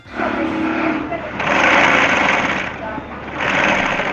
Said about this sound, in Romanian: E mașină de cusut. Ah, serios? Da, Asta simt... e o mașină de cusut? Da,